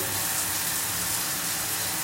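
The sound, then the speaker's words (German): A steady, continuous hiss of running water from a shower someone is taking, with no pauses or voices over the unbroken rush. “Kann ich mich also in Ruhe duschen. Es wird erstmal ein bisschen kalt”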